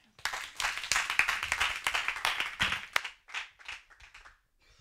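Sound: audience applause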